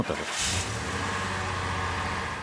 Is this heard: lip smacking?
no